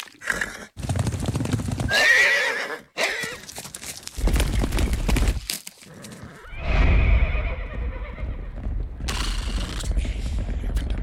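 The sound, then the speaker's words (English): A horse whinnies loudly at a stables, its high neighs rising and falling, while hooves clip-clop in a steady walking rhythm underneath. No one speaks. “Uh, as you just heard, we have arrived here at the Stampede Tack and Western Wear stables.”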